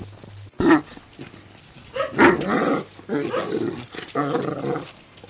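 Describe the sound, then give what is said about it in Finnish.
Several dogs on a walk barking loudly outdoors in a white winter landscape on a sunny day, in a quick, overlapping series of sharp barks and growly yelps, with a brief pause at the start and a low steady hum underneath. “Siihen on yhdistetty seurustelutunti, kuten tämä äänekäs haukunta täällä siellä ja täällä osoittaa.”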